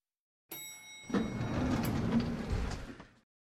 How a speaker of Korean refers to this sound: 이를 증명이라도 하듯 그녀가 엘리베이터 앞에 도착하자마자 문이 활짝 열렸다.